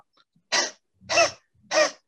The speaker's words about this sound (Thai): อาจารย์ได้ยินเสียงไหมครับได้ยินเสียงครับ ได้ยินเสียงเหมือนเหมือนกับเป็นเสียง กระแอมแห้งๆใช่ครับอาจารย์คือคือถ้าพูดกันด้วยเอ่อเทคนิคเนี่ยเทคนิคนี้คือลักษณะการกระแอมแบบที่กล่องเสียงเรายังเปิดอยู่ครับ